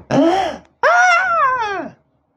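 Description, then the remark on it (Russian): A voice imitates a newborn baby's first breath after birth: a short, strained inhale, a brief pause, then a longer wavering moan-like breath, fairly loud with no speech. “Первое, что ребеночек делает, родившись, он делает первый вдох.”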